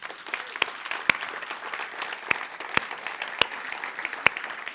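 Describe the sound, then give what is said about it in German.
An audience applauds for Jesus in a dense, steady patter of clapping, with a handful of sharper, louder claps standing out at irregular moments. No one speaks over it. “Wollen wir ihm Applaus geben?”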